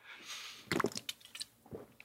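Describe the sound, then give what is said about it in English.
A quiet sip of water: a soft airy intake, then a cluster of wet, squishy mouth and swallowing sounds, with one more gulp near the end and no talking. “Let me get a drink of water.”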